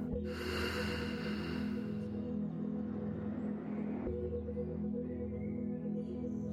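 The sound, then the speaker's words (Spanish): A single long, airy breath exhaled slowly during a guided breathing exercise, fading after about two seconds, over a steady low musical drone. “Y exhala.”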